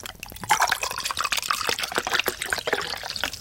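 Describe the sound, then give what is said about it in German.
Sangria is poured into glasses, a steady splashy trickle with bubbling and dripping that runs for a few seconds without any talking. “Okay, jetzt gibt es erstmal Sangria.”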